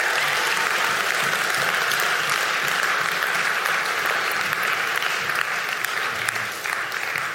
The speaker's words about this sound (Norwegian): Så fint. Kan vi ikke gi en applaus til de som tok et valg?